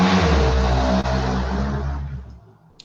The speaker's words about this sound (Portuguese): Passou uma moto